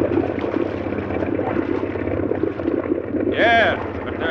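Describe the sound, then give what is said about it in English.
A motorboat engine drones steadily and loudly as the boat circles a skiff, with a rough, churning wash of water from its wake beneath it; near the end a brief high, wavering cry rises over the noise. “Gonna lasso him with our wake.”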